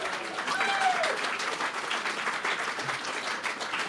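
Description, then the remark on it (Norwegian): Steady, dense applause from an audience, many hands clapping in a continuous even roar that holds at a fairly loud level throughout, with a brief faint whistle or voice rising early on. “Ja, Gi han en god applaus.”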